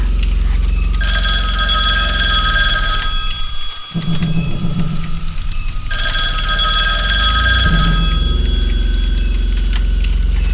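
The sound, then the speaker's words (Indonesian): A telephone bell rings loudly at night in two long bursts separated by a short pause, its bright metallic trill sounding for the third time, with no voices present. “Kemudian, agak lama setelah itu, telepon kembali berdering untuk yang ketiga kalinya.”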